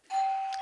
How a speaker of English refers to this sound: Oh, that's my doorbell.